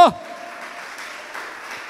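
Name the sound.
audience applauding loudly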